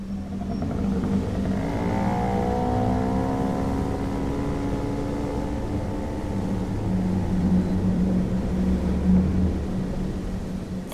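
A moped engine drones steadily for the whole stretch as it is ridden home on a cold autumn evening in Halden, its pitch gliding up and down as it revs, with no voices over it.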